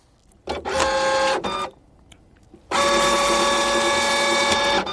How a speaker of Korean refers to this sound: 팩스 들어오는 소리 한 번 더 들려드릴게요.